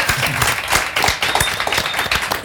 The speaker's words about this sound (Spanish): y además tenemos un gran público, así que gracias por venir, un aplauso para ustedes.